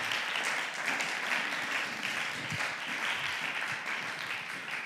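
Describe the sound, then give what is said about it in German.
Sustained applause from an audience, a dense, steady wash of many hands clapping at an even level throughout, with no voices standing out. “Wir applaudieren all diesen Menschen.”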